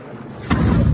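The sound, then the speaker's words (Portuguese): A sudden loud crack of thunder breaks in halfway through, followed by a deep, sustained rumble that stays heavy and low to the end. Nobody speaks. “E a umbrada vem em sequência com um trovão.”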